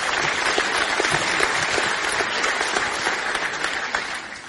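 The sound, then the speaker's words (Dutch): An audience applauds steadily for several seconds for the volunteer workers who worked on their building, a dense, even wash of many hands clapping at a constant loudness that tapers only slightly at the end, with no voices standing out. “Hey, mag even uh, applaus voor alle klussers die zo ontzettend gewerkt hebben eh, de afgelopen tijd in ons gebouw.”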